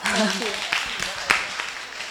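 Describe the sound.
An audience breaks into applause for a child speaker, a steady patter of many hands clapping at moderate loudness, with a voice briefly heard at the start.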